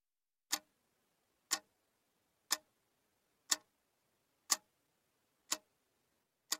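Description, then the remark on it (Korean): A tin alarm clock perched on a corner of an overturned copy of Duke's Celebrated Criminal Cases of America on a desk, reading five past two, ticks steadily, seven sharp metallic clicks spaced about a second apart, clear against an otherwise silent background. “양철 알람 시계가 책상 위에 엎어놓은 듀크의 미국의 희대 범죄 사건집 한 귀퉁이에 불안하게 올라선 채 2시 5분을 가리키고 있었다.”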